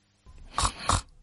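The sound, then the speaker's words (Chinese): Two short, raspy snoring snorts in quick succession, each a breathy rumble lasting a fraction of a second, likely a voice imitating a father snoring. “突然，我看到下班回家的爸爸，啊，我知道了，这是我爸爸打呼噜的声音。”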